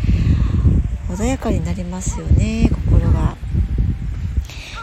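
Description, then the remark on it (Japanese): Steady wind blowing outdoors by the sea, a continuous low rumbling gust noise that runs beneath a person speaking and stays audible in the pauses between words. “ただねあの海のそばってやっぱり風もあるのでどうしてもね風の音も入ってるかなと思いますはい、えー、このね風の音ってなんだろうな一定のリズムでやってきますよねでもなんかこう計算して出したようなリズムでもなくって”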